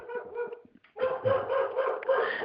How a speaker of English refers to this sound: my dog. Someone just came to the door. My dog.